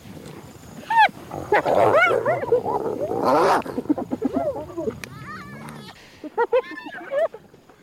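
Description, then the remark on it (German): Hyenas gut an animal carcass and fight over every scrap of meat in a loud, chaotic tangle of overlapping yelps, rising whoops and cackling giggles, broken by harsh growling bursts and snarls; recorded by Dieter Grossmann. “Also man hört so massiv, wie die Hyänen äh, dieses Tier ausweiden und um jedes Stückchen Fleisch kämpfen, ja.”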